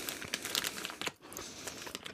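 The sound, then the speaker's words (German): Crinkly plastic rustling of someone rummaging through a bag of gummy bears to find the red ones, a continuous busy crackle with sharper crisp bursts and a brief lull midway. “guck mal, da muss, man, muss ich jetzt schon beim zehnten Gummibärchen oder sowas, muss ich jetzt hier schon irgendwie die roten suchen.”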